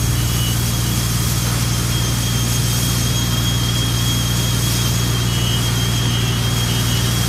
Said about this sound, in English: Now, before we talk about car parking building, uh, with all the works that are happening there, this is what it sounded like yesterday afternoon outside people's homes.